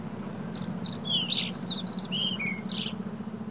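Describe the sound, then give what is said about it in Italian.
A series of bright, high bird chirps and short warbling phrases repeats over about three seconds in an isolated, peaceful wooded natural area with hundreds of trees and shrubs, above a steady low rumble of background noise outdoors. “In quest'area isolata e pacifica, caratterizzata da centinaia di piante arboree e arbustive, infatti uccelli, mammiferi, anfibi ed insetti trovano un habitat ideale per vivere e nidificare.”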